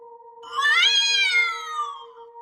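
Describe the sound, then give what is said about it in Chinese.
A pet cat at home at night lets out a single long, distressed yowl, sounding angered or frightened, that rises in pitch, then slowly sinks and trails off, over a steady, faint background tone. No one speaks. “因为她的猫发出了很恐怖的叫声。”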